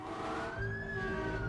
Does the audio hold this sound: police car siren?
yes